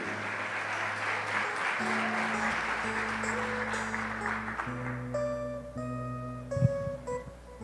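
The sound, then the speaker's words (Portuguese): An audience applauds the Lord steadily throughout, a dense wash of clapping that holds fairly even in loudness, while sustained keyboard chords play underneath and change pitch every second or so. Nobody speaks. “Então você pode aplaudir o Senhor, porque Ele fez isso na tua vida também.”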